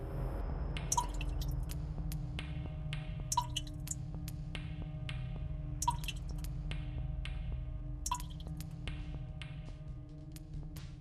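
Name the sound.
water dripping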